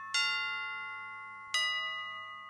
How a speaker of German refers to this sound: als Signalglocke für Feuer, Sturm, Krieg, Tod oder Geburt.